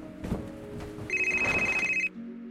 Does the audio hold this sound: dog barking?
no